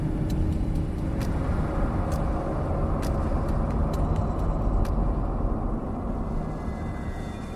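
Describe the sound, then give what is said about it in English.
A car engine roars steadily at high speed as it is driven at full throttle through hills, with constant road rumble and occasional sharp clicks, loud throughout, easing slightly toward the end. “Whoever designed them wanted to be able to get out of Batternton Woods as quickly as possible, and I was flooring it.”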